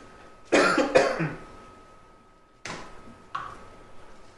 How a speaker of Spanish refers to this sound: No se alarme, si, me voy a toser, no tengo el corona. Aparte no se puede, no se contagia a través del internet.